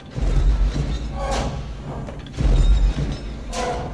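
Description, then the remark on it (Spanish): Two slow, heavy mechanical stomps of the Star Wars AT-AT walker sound effect, made from a press plus bicycle chains against pavement, each a deep booming thud followed by a metallic clank and rattle like chains, loud with a rumbling low end. “usó una prensa más el sonido de cadenas de bicicleta contra el pavimento.”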